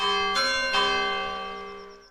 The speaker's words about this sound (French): J'ai fait le comptage, vous prenez quand même à 7h du matin, le dimanche matin, à peu près 150, 150 euh, coups de cloche.